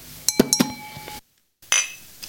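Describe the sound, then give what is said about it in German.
Wine glasses clink together in a toast, several bright ringing taps with lingering tones, a brief silence, then another sharp clink. “stoßen wir erstmal auf unseren europäischen Weinabend, den wir dann mit Arns haben werden, an”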